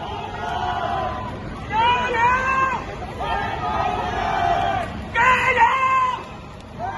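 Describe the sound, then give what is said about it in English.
A large crowd of supporters, at one point over 100 people, gathered outdoors outside a newspaper's offices in Hong Kong in heavy rain, a steady hubbub of overlapping voices with two louder swells of shouting and cheering rising above the chatter before settling back. “That was a very emotional event for Hong Kong people dozens of supporters, I think the crowd grew as big as over 100 at one point, gathered outside the newspaper's offices.”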